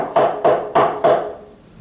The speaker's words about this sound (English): I'm knocking.